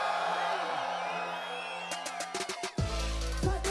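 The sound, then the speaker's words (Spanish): A loud crowd in Valparaíso cheers and whoops continuously, making noise on request before a round begins, with sharp bursts of noise breaking through and a heavy booming swell near the end. “Pero mi gente de Valparaíso, ninguno de los cristales va a empezar si no una fuerte bulla.”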